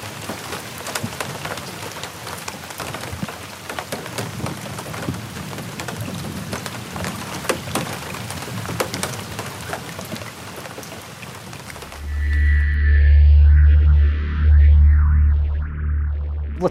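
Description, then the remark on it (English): Steady rain falls on a river in northern Canada: a dense patter of countless drops for about twelve seconds, then an abrupt cut to a loud, deep rumbling drone with shifting tones. No voices. “Anyway, I'm on a river in northern Canada in the rain, being eaten by mosquitoes, and now we're going to cut to Harbor Sound in downtown Manhattan.”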